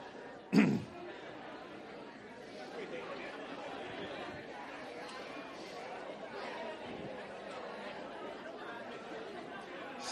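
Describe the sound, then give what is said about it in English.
An audience stands and chats with their neighbors all at once, a steady murmur of overlapping voices with no single speaker standing out, opened by a brief sharp thump near the start. “So stand up and take a moment to tell the person next to you one thing you know”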